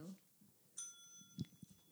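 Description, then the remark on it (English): A single bright ding from a small bell rings out clearly and lingers with a fading shimmer, while a voice murmurs softly nearby. “ding, ding uh, the bell.”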